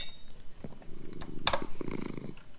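A cat purrs in a low, steady rumble with a rhythmic pulse, interrupted briefly by a sharp rustle or click partway through.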